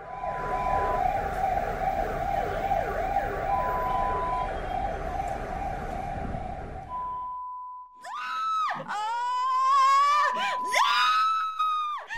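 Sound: ambulance siren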